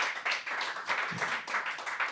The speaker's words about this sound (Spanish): Usted dice, yo me dan ganas hasta de aplaudir, dice hermano. Dele fuerte esas palmas al Señor.